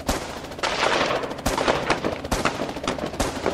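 Sustained gunfire as police open fire at the Fürstenfeldbruck air base shortly after a helicopter lands, in a shootout during an Olympic hostage situation: sharp, loud cracks and rapid bursts overlapping into a continuous roar, several heavier shots standing out every second or so, with no voices.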